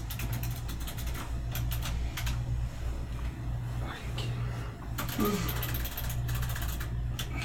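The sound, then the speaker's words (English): Bursts of quick, crisp clicks from a mechanical keyboard being typed on, coming in uneven clusters over a steady low electrical hum, moderately loud. “mechanical keyboards are so clicky.”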